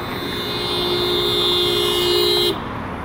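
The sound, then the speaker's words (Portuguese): Steady traffic rumble on a busy street, heard while going to the market, fills the scene while a car horn blares continuously for a couple of seconds before cutting off abruptly, leaving the constant road noise behind. “Hoje a rua tá bem mais cheia, eu tô achando, do que tava uma semana atrás.”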